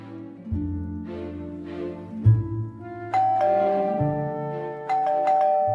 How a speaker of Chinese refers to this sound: 这时门铃响了起来